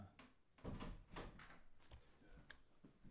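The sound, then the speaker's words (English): A bathroom door is handled and pushed shut, giving a few soft knocks and a muffled thud amid faint rattling, fairly quiet, with no talking. “Close the bathroom door.”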